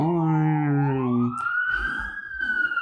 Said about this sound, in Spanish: Entonces, eh, bueno, resulta que el, eh, se escuchan como sirenas de policía, de bomberos, cerca.